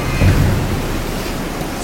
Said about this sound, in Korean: 성난 바람과 파도에 잠잠하거라. 네. 어, 이거 이분이 누구시게 바람과 물도 복종하는가?